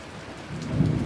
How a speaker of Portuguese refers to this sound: Seja muito bem-vindo ao Monólogos da Madrugada, que está ocorrendo enquanto acontece uma tempestade é, no meu bairro aqui, a, tá acontecendo tempestade toda tarde.